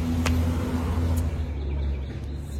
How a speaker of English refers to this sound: freaking UPS truck.